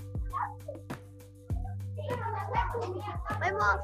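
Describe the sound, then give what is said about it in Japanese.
Several children's high-pitched voices chatter and overlap as a group of children suddenly arrives, swelling in after a few sharp knocks, over a steady low hum. “待ってなんかすごい一気に子供たちが来た。”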